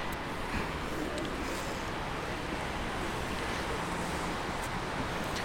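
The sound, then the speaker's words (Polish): A steady, gentle wash of city traffic in front of a station by a taxi rank, a low continuous rumble with soft hiss, no distinct events and no announcements, holding an even level throughout with no voices. “Nadal słyszymy w tym momencie delikatny taki szum, szum miasta. Słyszymy samochody, ale już nie ma na przykład tych komunikatów.”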